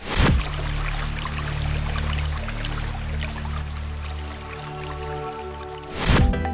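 Water leaking in a hospital and cascading onto patients' beds in a steady, dense patter of splashes, fairly loud over a low droning hum, with louder rushing bursts at the start and end.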